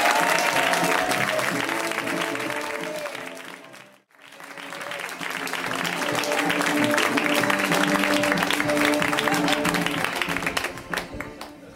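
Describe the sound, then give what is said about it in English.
A large audience claps steadily and loudly to welcome a comedian, dense and continuous, briefly thinning out to a near lull before swelling back into sustained, enthusiastic applause. “Please give a warm welcome to Shane Torres.”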